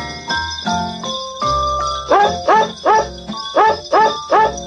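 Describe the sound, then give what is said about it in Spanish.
Dogs bark out a cheerful Christmas melody, each yelp pitched to a note in a bouncy, rhythmic run over light jingling bells and a bass-heavy backing track. “Y llegó la Navidad de los perritos.”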